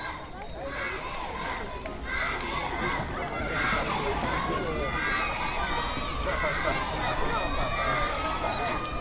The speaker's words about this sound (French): acclamé lors de son arrivée par les enfants de Pointe-à-Pitre. Écoutez mon Rhum, écoutez-les crier, les écoliers.